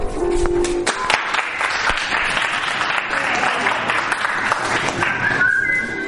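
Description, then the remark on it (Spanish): An audience at a comedy monologue show bursts into sustained, loud applause with shrill whistles cutting through as two women are introduced, the clapping dense and steady for several seconds as whistles rise above it. “Un fuerte aplauso.”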